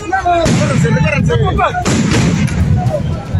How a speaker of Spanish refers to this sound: Lanzaron petardos, bombas molotov.